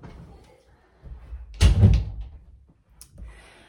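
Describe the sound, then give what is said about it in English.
A door swings shut with one solid, fairly loud thud, followed by a short rattle as it settles. Faint background murmuring can be heard before and after. “i'm laughing because my kids are laughing in the background and they didn't close the door um, hold on”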